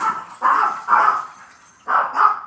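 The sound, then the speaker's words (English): A dog barks four times in two quick pairs, moderately loud, with a short pause between the pairs and no one talking. “Stop. No barking.”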